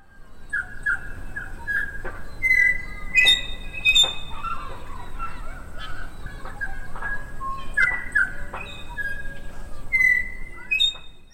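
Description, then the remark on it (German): Song of a Tui, a bird found only in New Zealand, rings out clearly: a varied run of bright whistled notes, sharp clicks and metallic chimes, repeated in short phrases over a soft background hiss, with no voices. “Das ist ein Vogel, den gibt's nur in Neuseeland. Das ist der Tui.”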